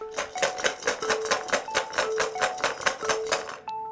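Nine dice rattle and clatter as they are rolled in a dice game, a rapid, steady series of sharp clicks for a few seconds, with no one talking.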